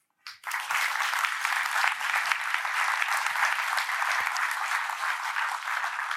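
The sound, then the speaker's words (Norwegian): Sustained applause from an audience welcoming a speaker starts abruptly and continues at a steady, full level, a dense wash of many hands clapping with no talking over it. “Ta godt imot!”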